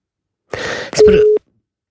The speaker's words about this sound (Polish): spróbujemy się połączyć e, na e, muzyce, która nam sygnalizuje oczekiwanie na połączenie.